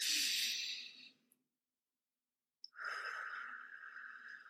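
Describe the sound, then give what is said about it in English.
A person demonstrates slow, deep breathing: one long airy breath, about two seconds of silence, then another drawn-out, breathy breath. No talking. “Scoop them onto your lap and just sit there silently if you do anything at all, you can model some slow breathing and see if they will follow along with you.”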